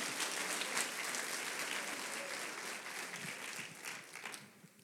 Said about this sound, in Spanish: Aplauda Rey de Reyes, Señor de Señores.